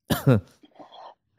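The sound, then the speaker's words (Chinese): Two harsh, forceful coughs in quick succession, followed by softer, raspy throat noises that trail off into quiet. “干嘛咳嗽这么严重？”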